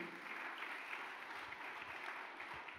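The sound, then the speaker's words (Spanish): A church audience during a sermon claps together in a steady, dense wash of applause that holds at an even loudness for a few seconds, with no voices standing out. “Vamos del otro aplauso fuerte.”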